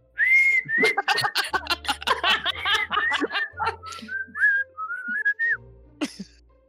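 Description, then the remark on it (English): A short whistled melody plays as an item is opened, bright and clear, its notes sliding between pitches, while bursts of laughter crowd the middle before the whistling carries on alone and ends with a soft thump. “I open and it just whistles at me.”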